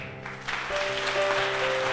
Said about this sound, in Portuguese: Dá uma salva de palmas a Jesus. Aleluia. Vamos aplaudir com força.